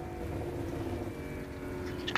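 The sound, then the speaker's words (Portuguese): A steady low rumble of car engines idling and moving on a busy main avenue, with cars stopping there, continuous, with a brief sharper noise right at the end. “Pelo som vocês percebem que os carros eles param lá na avenida principal.”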